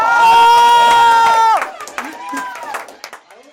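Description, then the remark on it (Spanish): An audience applauds with scattered claps and crowd noise at the IPS staff raffle for a trip to the 2022 World Cup in Qatar, following a loud, sustained, steady tone that cuts off about halfway through. “Un aplauso, por”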